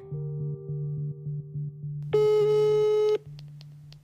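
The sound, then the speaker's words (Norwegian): Telephone ringing tone on a line: steady repeating electronic tones in a regular pulsed rhythm, then a louder, harsher burst for about a second before the pulsing tone resumes. No voices. “Hvem, hvem, hvem skal vi på en måte ringe?”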